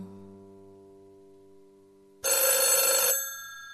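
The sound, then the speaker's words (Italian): A telephone bell suddenly rings loud, a bright sustained metallic trill lasting about a second, cutting in after a low steady tone fades out. “Scusa, scusate un attimo. Pronto?”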